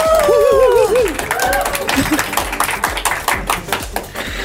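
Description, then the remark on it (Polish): Dense, steady clapping from a TV studio audience fills the whole few seconds, opening with a high, wavering vocal whoop over the first moments before the applause carries on alone. “Możecie brawo bić, bo...”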